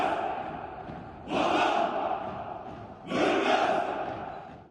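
A large group of Turkish commandos shouting in unison in the streets of Baku, the capital of Azerbaijan, while preparing for a ceremony, with two loud, sustained collective roars rising out of a steady crowd din, one after the other.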